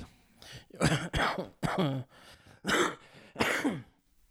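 A series of harsh coughs and throat clearing into a microphone, about five raspy bursts in quick irregular succession with brief gaps between them, no talking.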